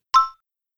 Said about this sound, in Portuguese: Ach so, ich höre gerade die Türklingel.